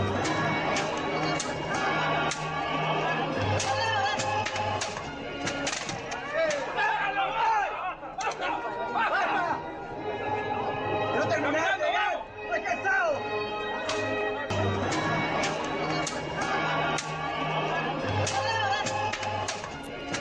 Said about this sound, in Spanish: Estamos escuchando uno de los tantos videos que la gente toma durante las representaciones de escenas bíblicas durante la Semana Santa.